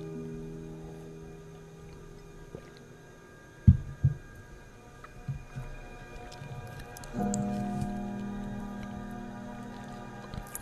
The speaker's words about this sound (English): I'm going to take a drink of water and then we'll get started.